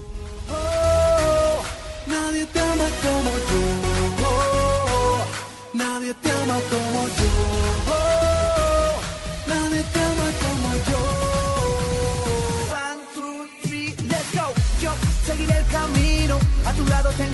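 A recorded pop song plays loud and full, with steady beat and layered instruments, briefly dropping out twice before the music comes back in. No one talks over it.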